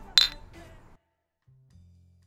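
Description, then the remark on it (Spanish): Beer glasses clink together in a toast: one bright, ringing clink followed by a softer second touch, fading out quickly, then a faint low hum. “Acción. Salud.”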